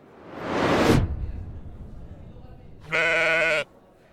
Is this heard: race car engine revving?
no